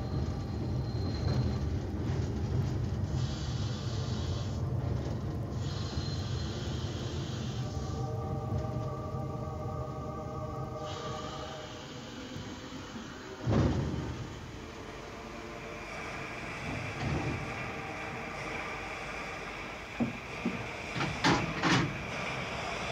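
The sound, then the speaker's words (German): A train rolls into its final stop, Warsaw Station in St. Petersburg, with a steady low rumble and a high, tonal brake squeal, followed by a heavy thump and a few sharp metallic clanks as it comes to rest. “Sankt Petersburg. Via Sankt Petersburg Warschauer Bahnhof. und die Endstation. Alles aussteigen.”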